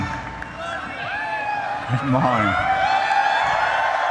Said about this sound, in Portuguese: Quando finalmente cessam os aplausos, Pichai começa com uma piada sobre o Mangis.